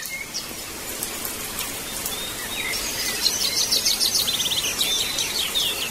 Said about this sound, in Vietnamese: But then you listen to the voice singing of birds right now during the storm and the rain. Xin chúng ta hãy cùng lắng nghe tiếng hát của những loài chim trong mưa bão.